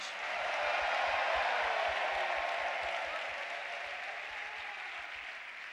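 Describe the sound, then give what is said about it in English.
A large crowd claps and cheers loudly to give God a shout during a sermon, a dense, sustained wash of applause with shouts mixed in, holding steady for several seconds before easing slightly toward the end. “Put your hands together. Give God a shout in the house.”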